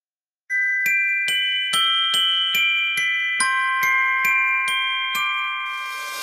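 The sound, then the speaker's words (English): A festive Christmas tune rings out on bright, bell-like tones, notes struck at a steady, even pace, closing with a shimmering jingle. No voices, just the chiming melody, clear. “Now we're going to do some Christmas music since it is December.”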